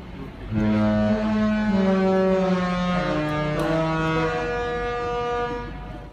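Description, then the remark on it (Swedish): A loud, deep horn of a Disney Cruises ship plays a slow melody of several sustained, harmonically rich notes that step up and down, ringing out for about five seconds before fading. “fartyget spelade en melodi, When You Wish Upon A Star, som låter så här.”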